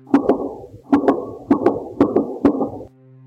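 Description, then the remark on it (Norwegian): A rapid series of about five gunshots, muffled, each sharp crack trailing into a reverberant echo, spaced roughly half a second apart, with a low steady hum underneath and no voices. Recorded by a camera set up to watch for mice in the attic of a house near Mossehallen. “Først en serie på tre skudd, så fem til.”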